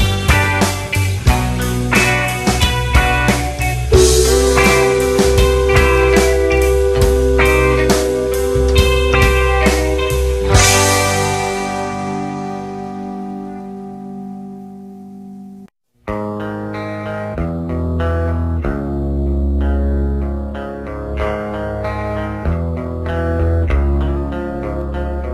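A rockabilly cover played by a full band with twangy, distorted guitar ends on a long ringing chord that fades. After a short silence, another loud, driving band track kicks in.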